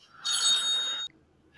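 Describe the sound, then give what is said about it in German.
A telephone rings once in a bright, buzzing electronic burst lasting under a second, then cuts off abruptly, leaving near silence with faint background hum. “so, da hatten wir schon wieder mal den Kunden äh, am Rohr, am Telefon.”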